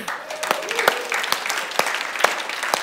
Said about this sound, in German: Ein Applaus der Technik.